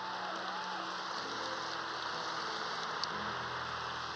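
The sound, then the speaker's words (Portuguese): A church audience applauding the Lord, a dense, steady wash of many hands clapping that holds at an even level throughout, with no voices rising above it. “Aplauda mais, aplauda mais.”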